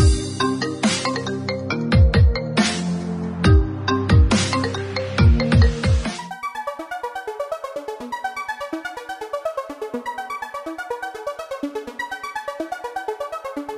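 A few seconds of punchy, percussive musical hits, then an electronic telephone ringtone plays a bright, repeating melodic pattern at a steady moderate volume, with no voices.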